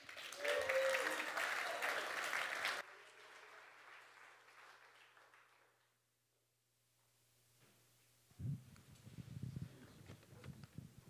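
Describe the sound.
A church audience breaks into loud, dense applause of encouragement for a man about to read scripture from John chapter 17. It stops abruptly after a few seconds, leaving a softer trailing patter and a hushed pause before a single voice begins speaking.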